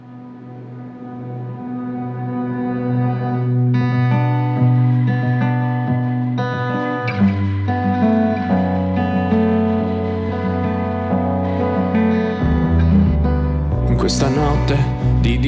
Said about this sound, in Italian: nell'attesa eh, ci prendiamo qualche minuto per ascoltare un pezzo musicale